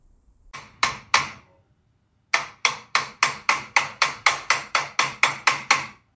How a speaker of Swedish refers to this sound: Grannarna vittnar om snickrande och hög musik på nätterna.